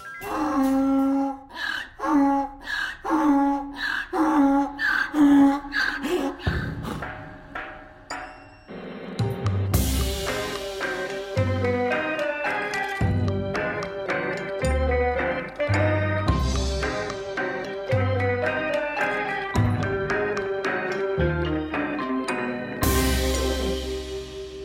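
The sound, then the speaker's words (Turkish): A donkey brays loudly in a series of rhythmic, harsh heaving calls for several seconds, then the braying stops and percussive music with drums takes over. “Eşek anırtılarıyla başladığımız bu kaydımızda sizlere yeniden seslenmenin mutluluğu içerisindeyim.”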